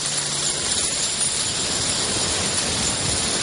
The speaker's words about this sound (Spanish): Coge una copa. Las monedas resbalan.